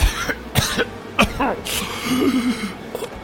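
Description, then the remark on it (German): A series of harsh, hacking coughs as a man coughs up a lump of blood, four or five rough bursts spaced unevenly, with strained, throaty groans and gasping between them. “hustet einen Batzen Blut aus”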